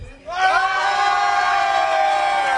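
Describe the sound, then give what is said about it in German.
The whole pub crowd at a quiz bursts into a huge, loud, sustained cheer with whooping after a brief quiet moment, many voices shouting together at a steady high level for a couple of seconds. “Ja, jetzt wollen wir nochmal die ganze Kneipe hier hören, bitte, mit einem Riesenjubel”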